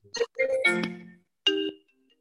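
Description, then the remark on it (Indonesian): A phone ringtone rings out clearly in two bright, tonal bursts, a longer melodic phrase followed by a shorter one after a brief pause, with no talking over it. “Aduh, siapa tuh angkat dulu tuh, angkat tuh.”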